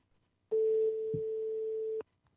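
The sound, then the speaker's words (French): A single steady telephone ringback tone from a call being placed to a journalist sounds for about a second and a half, clear, with near silence before and after and no voices. “Allô, tu m'entends on a appelé euh, David Michel”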